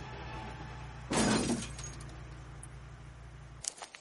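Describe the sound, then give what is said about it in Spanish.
A pickup truck slams into a wall with one loud, crunching impact and shattering glass, over a low engine rumble that cuts out shortly after, followed by a few small rattling clinks. “Choca contra un muro.”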